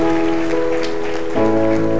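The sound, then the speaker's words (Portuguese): A church audience applauds with dense, steady clapping that holds at an even level, while sustained keyboard chords ring underneath and shift to a new chord partway through. “Uma salva de palmas para eles, irmãos.”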